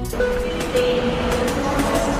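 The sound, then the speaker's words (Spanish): The Balearic Network hypertrain rolls by, a steady loud rumble with humming tonal whine and regular rhythmic clacks from the wheels, no voices. “El hipertren de la Balearic Network.”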